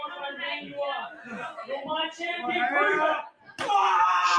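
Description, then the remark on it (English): One sharp, loud smack of a strike kick landing on wrestler Matt Hayter in a wrestling match cuts through steady voices and shouting, followed by a louder burst of noisy crowd reaction. “another big strike kick.”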